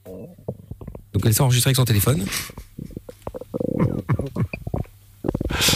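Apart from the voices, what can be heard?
stomach rumbling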